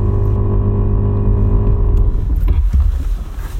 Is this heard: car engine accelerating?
yes